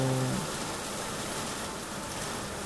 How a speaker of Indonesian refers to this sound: eh ternyata hujan deras banget ini gue lagi stay di warung nungguin hujan reda cuman kayaknya hujannya gila gede banget sih